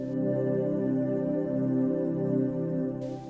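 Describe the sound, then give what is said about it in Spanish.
Calm, sustained Zen relaxation music from YouTube, found by typing the word Zen, with steady layered drones and soft tonal harmonics, playing continuously at a moderate level with no voices. “Estamos escuchando música que aparece en YouTube cuando escribís la palabra Zen.”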